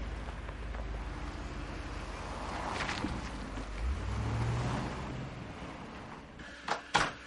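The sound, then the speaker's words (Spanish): A car pulls up as a man arrives at his house, its steady engine rumble swelling into a low hum before easing off, followed by two sharp thumps at the very end. No one speaks. “Llega en coche a su casa.”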